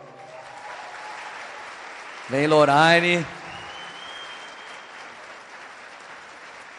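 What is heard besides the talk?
audience applause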